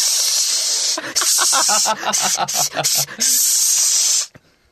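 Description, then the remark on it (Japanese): A loud deodorizing spray, used against smelly feet, hisses steadily, breaks into short bursts while a voice talks over it, then sprays again in one long continuous blast before cutting off. “ちょ、誰なし消臭スプレー持ってきてもう。”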